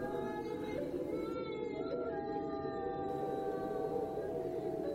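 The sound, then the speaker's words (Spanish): A ghostly woman's whimpering turns into a long, drawn-out wail full of pain. Its wavering pitch slides and bends over a steady low rumbling, windy background, continuous throughout. “Entonces, el lloriqueo se transformó en un alarido lleno de dolor que pronunciaba las palabras más famosas dichas por cualquier fantasma jamás.”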